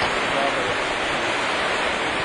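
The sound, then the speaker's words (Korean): Heavy rain pours down on a house in Rwanda in a dense, steady roar, a constant loud hiss with no breaks or individual drops standing out. “빗소리가 시끄럽게 울리는 집이지만 몸을 눕힐 곳이 생겼고 공사장에 나가면서 돈도 저축하고 있다.”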